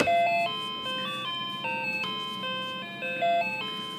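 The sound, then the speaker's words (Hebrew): An electronic doorbell plays a bright, stepping melody of sustained tones that rise and fall in a repeating pattern, steady and fairly loud with no voices over it. “איזה זמזום גרוע.”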